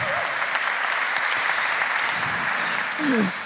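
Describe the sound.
A crowd applauds steadily, a dense, even wash of clapping that holds at a constant level throughout, with a brief voice rising over it near the end.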